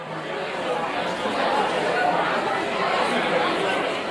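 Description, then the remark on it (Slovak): A dense wash of crowd chatter from some 60,000 people gathered in Centennial Park, Sydney, Australia, on New Year's Day 1901 for the formation of Australia, many talking at once, steady and moderately loud throughout, with no single voice standing out. “Tak toto znelo v sydnýskom Centennial Park na nový rok 1901, keď sa tam zhromaždilo 60 tisíc ľudí, aby boli svetkami formovania Austrálie v takej podobe, ako ju poznáme dnes”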